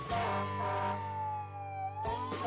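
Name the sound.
fire truck siren wailing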